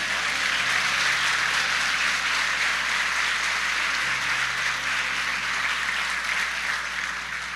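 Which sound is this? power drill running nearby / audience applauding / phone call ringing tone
audience applauding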